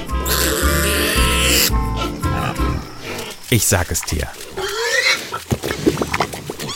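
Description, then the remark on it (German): A pig grunts and squeals loudly for a couple of seconds, a harsh rumbling burst, before a person starts talking and the animal noises drop away behind the voice. “Das Schwein.”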